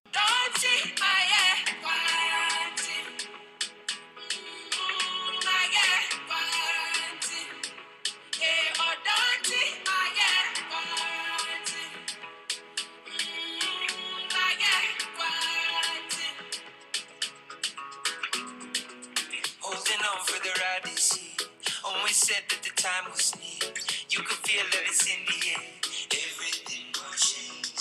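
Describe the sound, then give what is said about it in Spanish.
A full, bright song by an African artist with African-style beats plays steadily and loudly for the whole stretch, layered instruments driving a continuous groove with no pauses. “Qué linda canción, realmente me ha gustado eh, con estos beats africanos ¿ah?”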